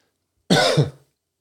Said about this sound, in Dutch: Sorry dat ik af en toe hoest hier.